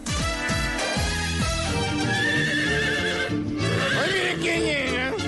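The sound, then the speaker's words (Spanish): A horse, presented as My Little Pony finishing a romantic ride, whinnies loudly with rising and falling cries, over a steady clip-clop of hooves and dense background music filling the whole stretch. “Ahí, para que vean, es My Little Pony que finaliza um, un recorrido amoroso.”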